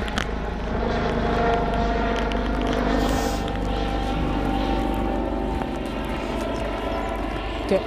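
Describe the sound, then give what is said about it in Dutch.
A helicopter drones steadily overhead, its engine hum loud and continuous throughout, with a faint rhythmic rotor flutter running underneath. “En ik hoor een. Ik weet niet of jij dat ook hoort. Een helikopter.”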